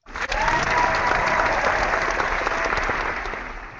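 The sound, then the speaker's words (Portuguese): Sustained applause from the audience of Por Falar em Corrida, a dense wash of many hands clapping at steady loudness for several seconds, full, fading slightly toward the end. “Muito obrigado, a plateia, pelo jeito gostou, né? Gostou, a plateia gostou bastante.”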